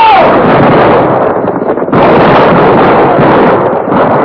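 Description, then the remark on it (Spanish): A loud, sustained volley of rifle gunfire as soldiers shoot at a man riding a horse along a ravine, many overlapping shots blurring into a dense crackling roar that briefly thins midway before surging again. No voices are heard. “Al divisarlo hay que dispararle a dar, soldados. Nada de tiros al aire.”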